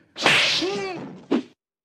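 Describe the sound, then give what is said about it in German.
A stylized slap sound effect: a loud swishing whoosh with a whistling, falling tone, then a short sharp smack, heard up close with no voices. “Meine Meinung. Die Ohrfeige.”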